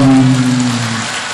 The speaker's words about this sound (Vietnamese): ồ ai cũng vỗ tay mừng quá trời luôn